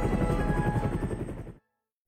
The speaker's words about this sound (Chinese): 看，那边救援人员正在把受伤的人平放在小艇上，随后直升机会把他送往医院接受救治。